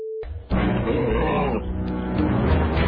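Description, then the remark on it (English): A chimpanzee gives a loud, rough, sustained vocalization, growling and hooting continuously for a few seconds after a brief tone at the start. “Maybe it's some kind of super monkey.”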